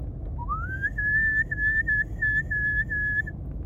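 human body sound, whistling

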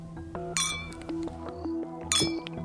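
household object, glasses clinking

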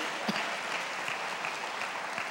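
crowd, audience applauding loudly

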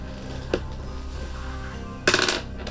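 household object, dice being rolled

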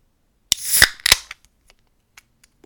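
food or drink, beer bottle being opened

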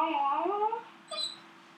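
animal, puppy whining

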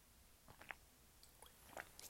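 food or drink, sipping water

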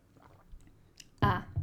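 human body sound, sipping and swallowing water

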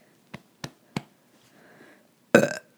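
human body sound, burp

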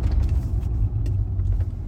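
vehicle, car driving on road

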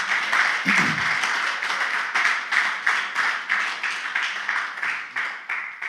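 crowd, audience applause

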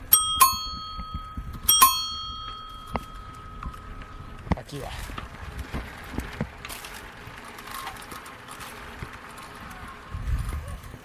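signal or alarm, bell ringing

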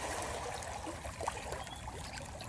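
nature, trickling water

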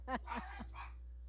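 animal, dog barking

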